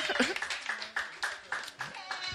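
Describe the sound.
A few people clap for someone becoming a new father, a steady, moderately loud patter of sharp hand claps lasting a couple of seconds, with voices talking and murmuring underneath.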